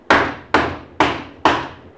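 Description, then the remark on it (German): Four sharp, evenly spaced hammer blows nail a train toilet door shut, each a loud bright knock on wood with a short ringing decay, in a steady rhythm with no voices. “Es sind die, mit denen Naumann die Toilettentür zunagelt.”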